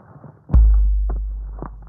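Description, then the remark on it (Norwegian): A single massive, booming footstep of a giant troll lands with a deep thud, its low rumble lingering and slowly fading, with a few faint knocks around it and no voices. “Det er nemlig bare store troll som høres slik ut når de går.”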